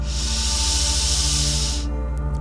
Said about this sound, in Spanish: Respiras profundo y exhalas. Fuerte, fuerte. Inhalas.